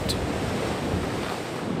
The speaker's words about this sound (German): Es gibt Orte, an denen besondere Wellen entstehen und in Peru gibt es davon viele.